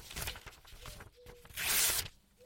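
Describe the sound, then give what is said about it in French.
Paper tearing as an envelope is opened: a few soft rips and rustles build to one longer, louder hissing tear near the end, with no voices. “Alors le chevalier ouvrit l'enveloppe d'un geste sobre.”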